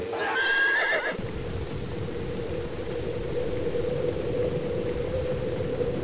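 A horse gives one shrill, wavering whinny lasting about a second, then a steady, rough rumbling noise carries on at even loudness with no further neighs; horses pulling a carriage, urged on by a coachman, on a snowy road in cold, windy weather.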